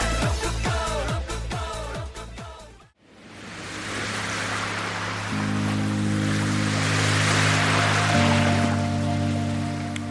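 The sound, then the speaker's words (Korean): A brief rhythmic musical phrase cuts off, then loud ocean waves wash in with slow swells, layered over a soft, sustained low musical tone. “어, 파도가.”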